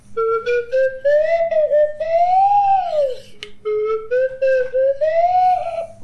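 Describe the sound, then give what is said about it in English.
A voice imitates a flute chime in the first of three takes, with a whistly, wavering tone that rises and falls in two long sweeping phrases, clear and fairly loud with brief breaks between segments. “just three clean takes of, of your best effort at, at the the flute chime.”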